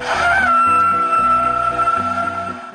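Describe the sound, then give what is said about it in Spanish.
Song of a male humpback whale: a long, sustained tonal cry holding steady over a low, rhythmic pulsing drone, loud and continuous for a few seconds with no voices. “Los machos producen un canto muy interesante.”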